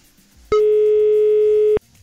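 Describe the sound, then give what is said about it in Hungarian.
A single loud telephone ringing tone as the listener of the day is called, one steady mid-pitched beep lasting a little over a second, with quiet background before and after and no voices. “Hívjuk a nap hallgatóján.”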